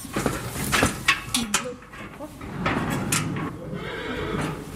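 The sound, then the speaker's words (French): A horse whinnies and snorts in its stall, with a few sharp knocks and shuffling sounds as the stall door is opened, and low background rumble throughout. “Là, j'ouvre la porte du box.”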